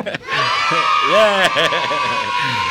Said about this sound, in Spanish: hemos quedado con, las voces de los niños gritando ahí con el analista del día de hoy.